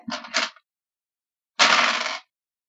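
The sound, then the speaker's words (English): Dice being rolled for initiative clatter across a hard table in two quick rolls: a short rattling tumble, a pause, then a longer, louder burst of rolling and knocking. No voices are heard. “All right, reroll initiative.”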